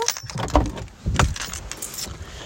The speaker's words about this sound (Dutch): Als je kijkt naar de grootste bedrijven, ik stap ondertussen ook even uit mijn auto.